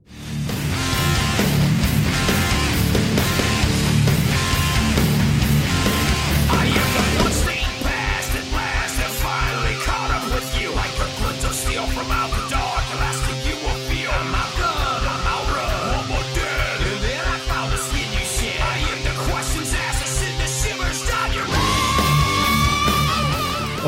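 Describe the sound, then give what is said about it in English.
The bridge before the final verse of a loud nu metal song, with shouted, half-rapped vocals rattling off lyrics without proper rhythm over dense distorted guitars, settling into a tight, chugging rhythmic groove with pounding drums partway through. “little faux rapping there, oh.”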